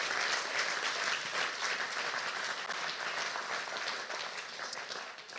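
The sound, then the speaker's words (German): An audience breaks into sustained applause for Jesus, celebrating his resurrection, many hands clapping in a dense, steady wash of sound that stays loud throughout and eases off slightly toward the end, with no voices standing out. “Komm, lass uns mal Jesus einen Applaus geben, ihn feiern dafür.”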